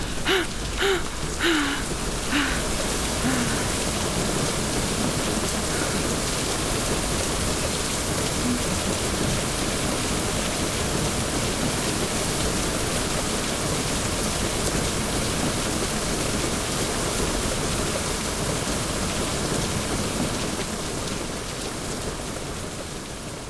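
A thunderstorm's heavy rain pours in a dense, unbroken roar for the whole stretch, loud, with a low rumble beneath and a few brief high chirps at the start; no voices.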